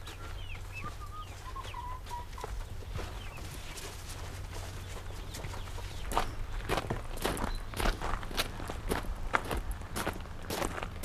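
A few soft chicken clucks at a smallholding in South Zealand (Sydsjælland) in the early morning, then steady crunching footsteps of a man walking out to check on the chickens, growing louder, with a low constant hum underneath and no talking.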